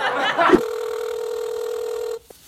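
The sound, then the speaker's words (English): A brief burst of laughter gives way to a steady, continuous phone ringing tone as a dropped phone call is being reconnected, holding evenly for under two seconds before cutting off abruptly, followed by a small click. “He uh, calling up the phone.”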